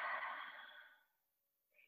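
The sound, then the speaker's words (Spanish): A soft, slow, gentle exhale of breath during a breathing exercise, airy, tapering off gradually into near silence, followed by a faint brief sound at the end. “Y exhala suavemente”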